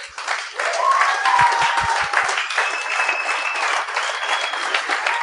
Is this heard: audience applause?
yes